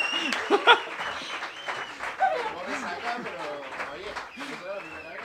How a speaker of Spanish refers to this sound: que tiene el mejor de los aplausos